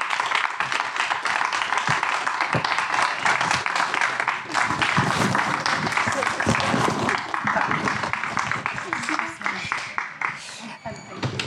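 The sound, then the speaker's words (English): A large audience applauds a panel participant steadily, a dense wash of many hands clapping that holds for about eleven seconds, loud, with a few voices mixed into the crowd noise. “So please uh, give her an applause.”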